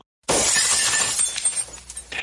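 A glass bottle smashes against a wall with one sudden, loud crash, followed by a bright spray of tinkling shards scattering and settling over about two seconds. No voices.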